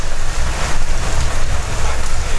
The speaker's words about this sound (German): Boah, ist das ein Wind. Leute, hört mal.